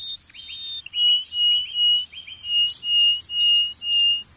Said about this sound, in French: Les oiseaux n'ont pas accès à Tinder. Leur seule manière de se courtiser, c'est avec le chant.